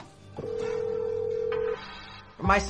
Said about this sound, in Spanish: El tono de espera seguía sonando y no contestó nadie.